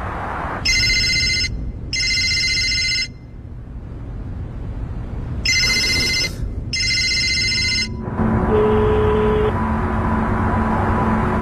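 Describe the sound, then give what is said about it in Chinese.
A telephone rings in two double bursts of bright, buzzy trills with a pause between them, over a constant low rumble, as a call is placed from a phone booth to a trusted colleague. A steady electronic tone follows the rings. “找了一个电话亭，打给了他最信赖的同事”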